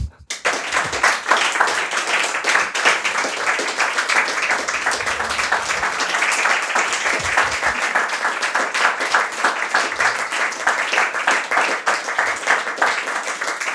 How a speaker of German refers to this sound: Ich bitte um einen donnernden Applaus für alle, die das Gespräch auch überzeugt hat, dass es Grund für Hoffnung gibt.